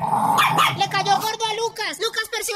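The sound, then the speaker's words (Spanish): A territorial dog, Lucas, barks and growls in a rapid, agitated series of loud vocalizations, sounding defensive and aggressive, with a voice speaking over it. “en el caso de Lucas, el perro territorial que cuida los intereses”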